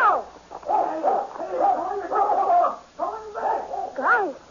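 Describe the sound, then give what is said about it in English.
A dog whimpers and whines at a bush in a steady run of high, wavering cries broken by short yelping barks, fairly loud, with no one talking. “what's the matter, boy? What are you growling at?”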